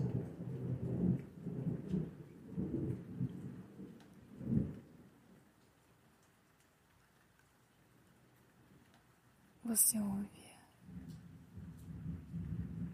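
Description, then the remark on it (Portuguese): A thunderstorm outside at night: steady rain with deep rumbling thunder rolling in waves, a sharp crack toward the end, and a brief spoken phrase over the storm. “A tempestade caindo lá fora.”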